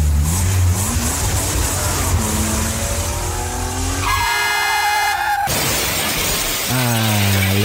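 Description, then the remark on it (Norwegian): A car engine revs and roars through rising and falling gear changes during a car drive, loud, with a sudden high-pitched horn-like blare in the middle before the engine surges again. “så eh, får du bare lene deg tilbake og nyte hva som kun kan bli beskrevet som en, eh, en biltur, så nyt.”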